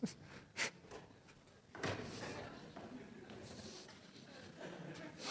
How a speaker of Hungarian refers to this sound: Hogy kialakul egy probléma tudatom, ami a jelenre vonatkozik, és az a fölismerésem, hogy semmi akadálya annak, hogy fogjam ezt a széket, és ezt, is el is viszem.